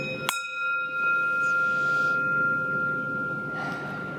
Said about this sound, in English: so we're gonna we're gonna invite the bell and here we go